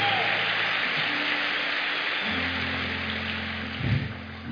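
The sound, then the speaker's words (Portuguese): An IBC church audience applauds the Lord steadily, a dense wash of many hands clapping at a constant level, with a low sustained organ-like tone underneath and a brief swell near the end. “E eu quero, amém, pode aplaudir o Senhor, pode.”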